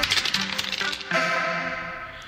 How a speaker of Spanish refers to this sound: Y vamos a lanzar los dados. A ver qué nos toca el día de hoy. Ahí van los dados rodando.